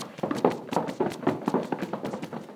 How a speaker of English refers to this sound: Place your hands to the sides of your chair or the sides of wherever you're at. Unwind your legs and stomp out your feet.